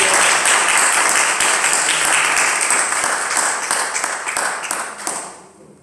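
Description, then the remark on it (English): An audience gives Jesus a hand clap of praise, breaking into loud, sustained hand clapping, a dense crackle of many palms that holds steady for several seconds before thinning and fading out at the end. “Somebody give Jesus a hand clap of praise.”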